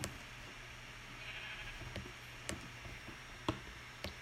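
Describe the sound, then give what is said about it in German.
A sheep bleats faintly over steady background hiss, while sharp, evenly spaced clicks tick through the scene. No one speaks. “Ey, gut, dass der Wolf das nicht gesehen hat, das Schaf.”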